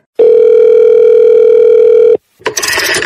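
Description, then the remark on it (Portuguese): A telephone rings with one long, steady electronic tone lasting about two seconds, loud, followed by a brief burst of harsher noise. No one speaks. “Ei, alguém atende o telefone?”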